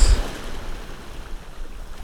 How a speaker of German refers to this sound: Ja, Freunde, es ist so schön hier in der Sonne zu sitzen und das Rauschen der Wellen zu genießen. Diese fast Windstille, die jetzt gerade im Moment hier herrscht.